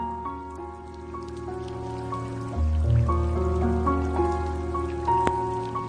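Steady rain patters continuously as a soft hiss, mixed with a gentle sustained melody of musical notes. There is no talking.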